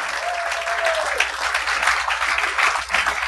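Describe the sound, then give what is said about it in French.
Steady applause from an audience, a dense wash of many hands clapping at an even loudness throughout, with a brief faint tonal whistle near the start. “Merci, applaudissez-le.”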